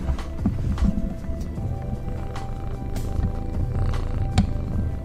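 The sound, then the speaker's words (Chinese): A cat named Niangaowan (年糕碗), sleepy and lying down, purrs steadily throughout, a low, continuous rhythmic rumble at moderate volume, broken by a few faint clicks and rustles. “有没有听到年糕碗的声音？”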